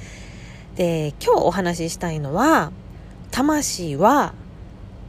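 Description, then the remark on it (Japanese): A low, steady droning rumble fills the inside of a car where someone is recording, running continuously and quietly beneath a person speaking. “え本日もですね、ちょっと車内で録音させていただいているので、ちょっと後ろでボーっというね、音が聞こえておりますが、お聞き苦しくて申し訳ありませんが、ご了承いただければ嬉しいです。”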